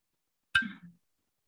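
A single bright clink of glasses knocked together in a toast, its sharp strike ringing briefly at a high pitch before fading out, with no voices.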